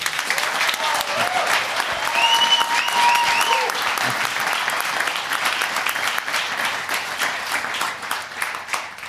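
A live audience bursts into sustained applause with scattered whoops and cheers for a guest after his appearance, dense clapping going on for several seconds before gradually thinning out.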